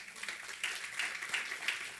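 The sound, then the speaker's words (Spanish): A crowd applauds steadily, many hands clapping in a dense, continuous wash of sound that swells slightly a few times, with no voices standing out. The applause is given to the Lord in the morning, at a preacher's call. “Den un aplauso al Señor esta mañana”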